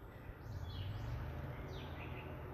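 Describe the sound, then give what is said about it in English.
Several bird calls of different kinds chirp and warble outdoors in the early morning, a few short bursts rising over a steady low rumble of background noise, with no voices. “I hear like a leaf blower, different kinds of birds, people talking, cars passing the wind blowing”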